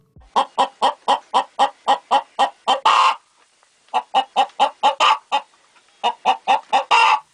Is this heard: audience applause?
no